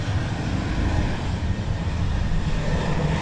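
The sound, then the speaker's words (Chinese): A China Airlines airplane roars overhead, a loud, steady low rumble with a broad hiss on top that holds constant for the full few seconds, with no voices over it. “我们现在有另外一个插播，嗯、应该是 飞机的 call in，”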